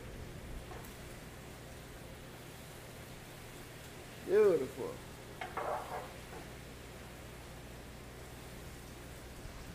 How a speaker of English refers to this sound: So now I'm going to give it a little bit of cooking wine, Chinese cooking wine. All right. Let's give it a little, little tap little taste, you will hear that sizzle. That's what you want to hear, man. That means everything is in gear.